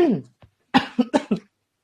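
A person coughs in a quick burst: one rough cough, a short pause, then three sharp coughs in close succession, fairly loud with a raspy, breathy texture.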